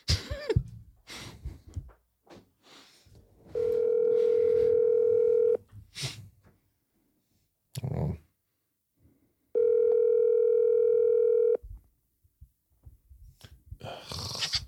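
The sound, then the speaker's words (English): A phone call to the speaker's daughters, who have just arrived, rings out: two long, steady, buzzy ringback tones, each about two seconds, separated by a pause, with faint rustling, clicks and a cough around them. “Let me call these little biatches.”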